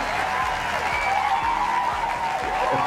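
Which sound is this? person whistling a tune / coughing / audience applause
audience applause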